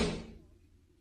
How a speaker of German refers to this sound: so, hat die Spülmaschine zugemacht. ja, stellt euch vor, als habt ihr gehört, äh, einfach, der macht die Spülmaschine zu und der Sound ist weg.